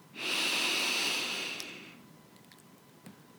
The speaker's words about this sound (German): Atme ganz tief durch die Nase ein und stell dir vor, du hast einen großen Luftballon in deinem Bauch. Und mit jedem Einatmen pustest du diesen Luftballon in deinem Bauch ganz fest auf.